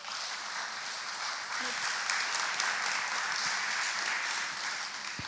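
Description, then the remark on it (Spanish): A crowd applauds steadily, a dense wash of many hands clapping at once that holds at an even level for several seconds, with a few faint voices mixed in. “Dale un aplauso al Señor, por favor.”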